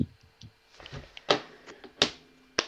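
A few small, light hand claps, three sharp crisp hits spaced irregularly with softer taps between them, fairly quiet overall and with no talking.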